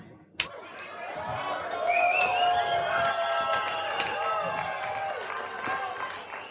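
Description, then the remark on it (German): A crowd applauds steadily for several seconds, with cheering voices and a few shrill whistles rising above the clapping. The sound starts with a sharp burst and stays loud and continuous throughout. “Aber Vielen Dank für diesen warmen Applaus.”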